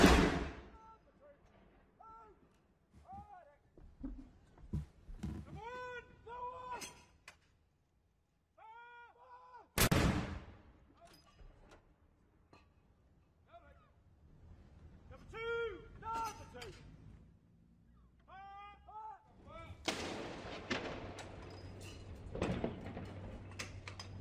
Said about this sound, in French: Et à l'instant où nous parlons, ce sont des coups de canon, 96 coups de canon qui sont tirés de part et d'autre euh, du Royaume-Uni, en hommage bien sûr à la souveraine décédée hier.